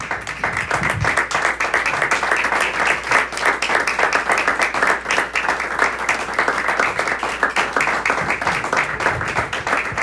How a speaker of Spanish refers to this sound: Le damos un aplauso al Señor, hermano.